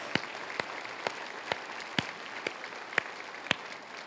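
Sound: audience applause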